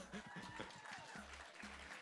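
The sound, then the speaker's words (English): An audience applauds a list of new Reddit product launches and an upcoming site-wide redesign, a dense, steady wash of many hands clapping at an even loudness for about two seconds, with a faint low voice murmuring underneath. “Wait, are you applauding because the old site looked ugly or just because there's a lot of work getting done here?”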